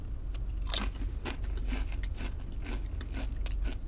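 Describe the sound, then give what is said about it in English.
A crunchy chip topped with ghost pepper sauce being bitten and chewed, a quick series of sharp, crackling crunches at an irregular rhythm, moderately loud with no talking. “I have the ghost pepper sauce on the chip.”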